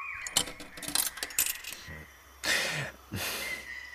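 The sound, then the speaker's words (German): A coin clinks and rattles down through a coin-operated machine in a quick series of metallic taps, followed by two louder rattling clatters as it comes back out at the bottom. “Die Münze kommt unten wieder raus.”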